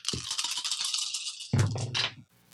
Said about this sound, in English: I'm going to use my perfect memory to re-roll this blank die, see what I get.